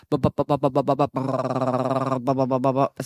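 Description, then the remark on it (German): A voice imitates the knocking of an MRI scanner, which slides a person into a tube and scans the brain and spinal cord layer by layer: a quick series of rhythmic, buzzy pulses, then a long sustained droning hum, and more short pulses at the end, fairly loud. “Man wird in so eine Röhre hineingefahren und dann wird so schichtweise das bei mir Gehirn und Rückenmark gescannt.”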